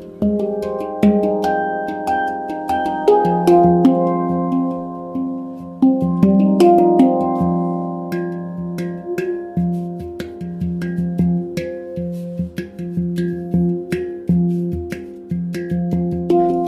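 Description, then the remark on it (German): An oval handpan played by finger, its short and long axes vibrating together to make each tone, ringing notes struck one after another in a flowing melodic pattern, each tone sustaining and overlapping the next, clear with no voices. “Handpan - Klangskulptur & Heilwerkzeug”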